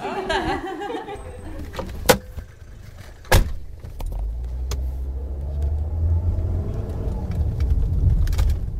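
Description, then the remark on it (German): Car doors slam shut twice in sharp bursts, then an engine starts and a steady low rumble of driving builds and continues, with brief voices and laughter early on, as a student gives passengers a ride in her car, chatting in Greek with the radio playing. “Eine von Amandas Schülerinnen nimmt uns in ihrem Auto mit.”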